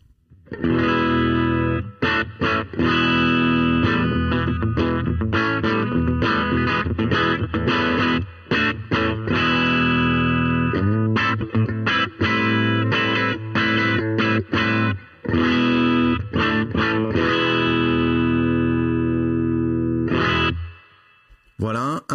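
A clean electric guitar, played through an amp-emulator pedal at low gain on the bridge humbucker, plays steady for about twenty seconds: a flowing run of picked notes and chords with no voices. It pauses briefly, then ends on a final ringing strum.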